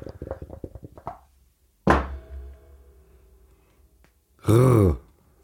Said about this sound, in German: Dann äh, bist du dran mit Würfeln jetzt.